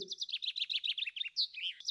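A bird chirps in a quick, steady run of bright, high notes, about a dozen rapid tweets in a row, clear with no talking.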